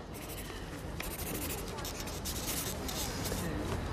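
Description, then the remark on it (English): A pen quickly and steadily scribbles an autograph on paper, a continuous scratchy rasp of short overlapping strokes lasting several seconds. “Pens run out.”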